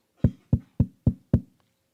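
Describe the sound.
Five quick, evenly spaced knocks rap out clear, imitating knuckles on a door, each a solid thud with a short ring, followed by silence and no voices.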